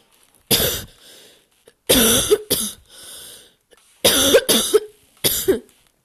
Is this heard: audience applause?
no